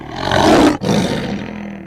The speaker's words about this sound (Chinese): 狮子想吓唬奥兹一下，免得他又赖皮，便凶猛的大吼一声。